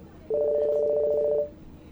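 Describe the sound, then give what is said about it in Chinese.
A single electronic telephone ring at a workplace, a steady two-tone buzz with a slight warble, lasting about a second before cutting off, with no voices. “这天上午，正在单位上班，电话响了起来。”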